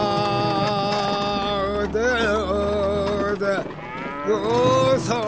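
animal, ox lowing

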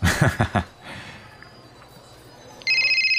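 signal or alarm, mobile phone ringtone

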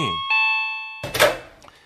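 household object, doorbell ringing

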